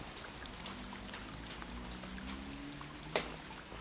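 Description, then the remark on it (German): Steady rain patters on a street, a soft hiss scattered with sharper individual drops, over a faint low rumble; one louder splash stands out near the end. No voices. “Nur wenn Regen dazu kam, war es dann doch immer noch das bisschen zu laut.”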